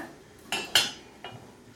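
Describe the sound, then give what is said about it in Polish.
A metal lid is lifted off a pot of boiling water with three quick clinks and scrapes of metal on metal, fairly crisp, with no voices. “Woda już mi się gotuje, co słychać po takim charakterystycznym bulgoczącym dźwięku, więc zdejmuję pokrywę”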